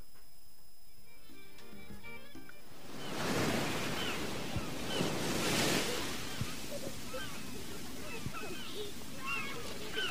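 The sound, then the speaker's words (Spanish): Ocean waves break on a shore with a broad, rushing surge that swells and fades, followed by a steady wash of surf. A quieter, tonal background comes before the waves roll in. “con estos sonidos de playa y con esas percusiones que van entrando de a poquito, nos vamos despidiendo de este Latinoamérica musical del día de hoy.”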